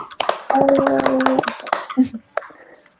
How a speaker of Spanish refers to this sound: Un ¡Uh! aplauso para ella.